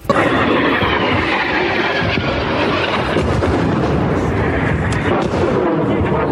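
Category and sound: impact, explosions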